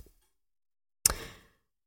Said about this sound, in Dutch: En... Terwijl oh, de klok eh, Ja, dat was de klok, half twaalf.